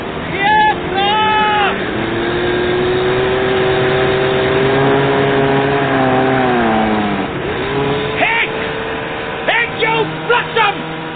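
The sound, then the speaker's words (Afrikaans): Boat outboard motors on the sea in a bay drone loudly and steadily, their hum sliding slightly up and down in pitch, with brief sharp bursts of sound near the start and toward the end, amid the noise of the sea and wind. “Die gedreun van die hangmotors het weggeraak in die gedruis van die see.”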